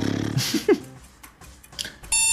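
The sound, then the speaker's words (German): A timer beeps as time runs out: a buzzy electronic tone at the start, a few short chirps, then a loud, steady, clear beep near the end, with no talking. “Ja, Zeit läuft aus.”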